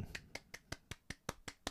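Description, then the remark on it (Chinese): Nine quick hand claps in an even, steady rhythm, each a sharp crisp slap, with no voices over them, clapped by hand in place of a sound effect. “好可怜，没有特效，还要自己拍手。”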